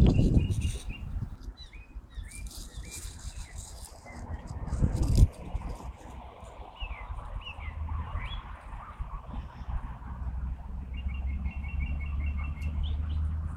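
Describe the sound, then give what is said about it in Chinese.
A blackbird in a tall poplar tree, fairly far away, mimicking a magpie: scattered bursts of short, sharp mid-pitched notes, ending in a quick rattling run, over a steady low rumble with a brief thump partway through. “这是模仿喜鹊的叫声。”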